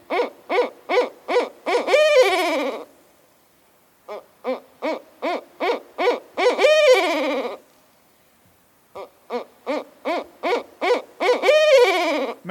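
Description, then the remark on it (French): A bird calls loudly, repeating the same phrase three times: a quick run of short, evenly spaced notes ending in a longer quavering note, with pauses between phrases. “Et voici la voix de l'oiseau à l'honneur aujourd'hui.”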